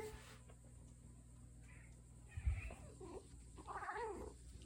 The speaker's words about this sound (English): And of course, awareness knows that cat was meowing right there. See if you could notice it, if it, if it happens again